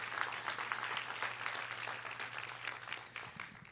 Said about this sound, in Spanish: ¿Alguien lo cree? ¿Alguien le da un aplauso fuerte a Jesús por eso?